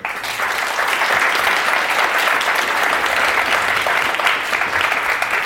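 Steady audience applause, a dense crackle of many hands clapping at once, loud and even throughout with no voices over it, holding at a constant level until it trails off slightly at the end.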